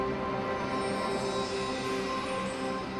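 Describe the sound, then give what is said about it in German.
A short musical fanfare flourish (a Tusch) marking the moment of an award presentation: a loud, full chord of rich sustained tones held steadily for about three seconds, with no talking over it. “Ein Tusch.”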